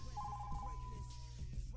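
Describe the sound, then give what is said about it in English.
A mobile phone rings with a thin electronic tone that warbles briefly and then holds steady, fairly quiet over a low background hum, with no one talking. “That is my phone, which we'll talk about in a second.”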